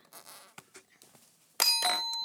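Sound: ding-dong bell chime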